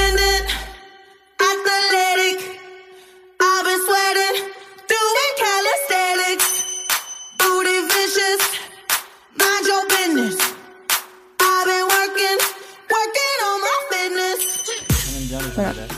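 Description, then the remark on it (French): A pop song plays on its own from a phone, with a bright sung melody over bell-like synth tones and choppy, rhythmic phrasing that stops and starts; no one talks over it. “T'as pas des trucs enregistrés sur ton téléphone Euh.”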